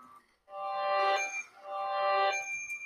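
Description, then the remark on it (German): A mobile phone rings with two bright, tonal bursts of a melodic ringtone, each lasting under a second, separated by a short gap. It sounds clear, with no talking. “Ja, sorry Leute, das ist mein Handy.”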